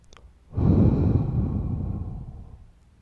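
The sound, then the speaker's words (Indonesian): A deep, slow breath drawn in and let out, a long airy rush lasting about two seconds before fading away, with no talking. “Ya, kita mesti ambil jeda sejenak, tarik napas dalam-dalam.”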